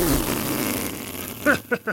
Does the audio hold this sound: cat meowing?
no